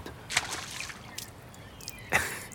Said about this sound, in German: Wir gehen durch den warmen Sand und erreichen die Brandung. Jede Welle bringt einen neuen Schwall erfrischendes Meerwasser, das um unsere Knöchel schäumt.